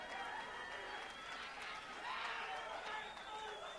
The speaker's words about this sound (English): And look at that crowd. You're getting a standing ovation.